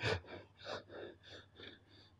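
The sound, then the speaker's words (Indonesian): A voice imitates labored, short-of-breath breathing: a strong opening gasp followed by about five quick, rhythmic panting breaths, moderately loud, with no talking. “Akhirnya dia kirim signal, sesek nafasnya mulai.”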